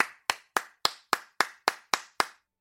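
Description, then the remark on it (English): Nine sharp hand claps at a steady, even pace, each with a short echoing tail, sounding somewhat distant in a reverberant space, with no voices. “Someone clapped in the distance.”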